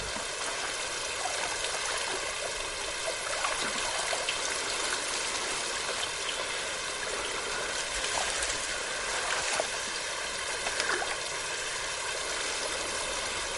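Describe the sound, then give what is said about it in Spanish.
Steady splashing and swishing of water as a man wades waist-deep through rice paddies, a continuous churning wash with a few sharper sloshes and drips, no voices. “El agua cubre a Juan hasta la cintura”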